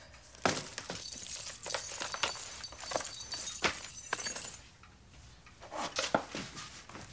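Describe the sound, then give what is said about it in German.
A bunch of keys jingles and clinks as a handbag, a folder and the keys are set down at a coat rack in the dark hallway of a villa, a flurry of bright metallic rattles, a brief lull, then a few more clinks. “Sie schaut bedrückt und legt ihre Handtasche, die Mappe und einen Schlüsselbund an der Garderobe ab.”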